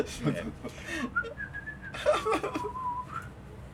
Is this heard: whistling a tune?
yes